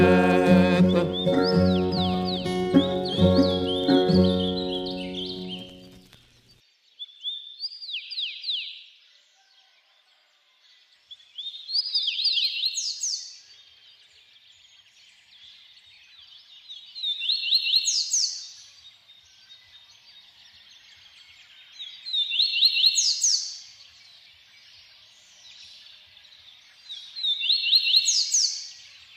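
A small bird sings in bright, high chirping phrases that repeat about every five seconds, after a few seconds of music that ends abruptly at the start.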